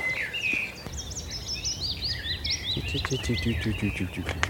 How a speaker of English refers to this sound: That's the um, willow warbler.